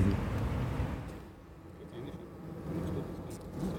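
A dense, steady hum of many honeybees inside the honey super of a beehive, a continuous low drone that swells and eases slightly without pause.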